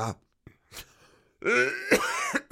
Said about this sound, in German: da ist er schon wieder der trockene Husten.